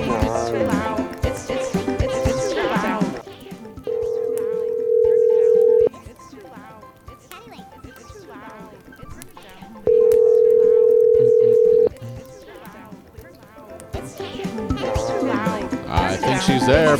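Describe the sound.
A phone call ringing out: two long, steady ringback tones a few seconds apart, clear and fairly loud, with voices and busy background sound at the start and end.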